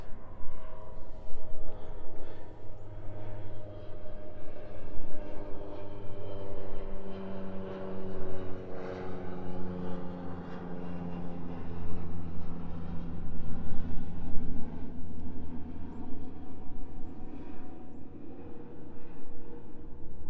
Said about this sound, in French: Euh, ah, eh ben, un avion qui passe. Merci l'avion.